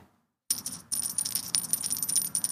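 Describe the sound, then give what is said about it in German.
After a moment of silence, a tiny bell, found at home and about the size of the one a Lindt chocolate bunny wears around its neck, jingles continuously with a bright, high-pitched tinkle, briefly pausing once before shaking on steadily until the end. “Also ich finde es unfassbar niedlich, weil dieses Glöckchen ist, glaube ich, ungefähr das, was so ein Lind-Schokohase um den Hals hat.”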